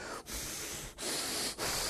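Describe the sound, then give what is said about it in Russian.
A person imitates a horse snorting with three forceful, breathy bursts of air through the nose, fairly loud, separated by brief pauses, with no talking. “Храпение ноздрей его.”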